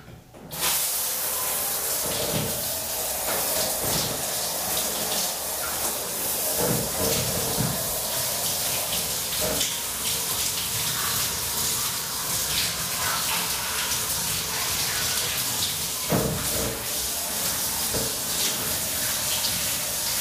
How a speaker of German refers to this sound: So, jetzt wird die Dusche wieder laufen, also ihr werdet jetzt erstmal wieder kein Wort von mir hören. Es geht wieder los mit dem Duschen.